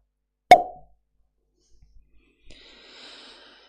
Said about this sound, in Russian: Вторая бутылка водки открылась со звуком надвигающегося пиздеца.